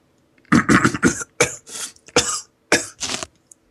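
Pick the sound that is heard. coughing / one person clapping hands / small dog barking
coughing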